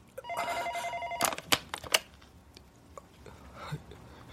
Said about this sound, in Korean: 방금 전까지 그가 그곳에서 무슨 짓을 하고 있었다는 걸 알기라도 하듯 전화벨은 오래도록 울렸다.